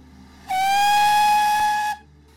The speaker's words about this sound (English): With a scream of metal against metal, the train pulled away.